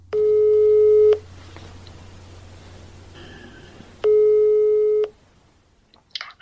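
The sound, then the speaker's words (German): Two long steady telephone ringback tones, each about a second, separated by a pause of quiet line hiss, then a brief click as the call connects. “Also setze ich meinen ersten Plan um und wähle eine Telefonnummer.”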